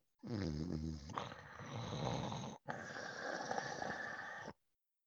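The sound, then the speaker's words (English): A person imitates a growl with a low, gravelly rasp in two loud, sustained bursts separated by a brief pause, starting with a deeper rumbling tone and no other talk. “Just a, a like a growl”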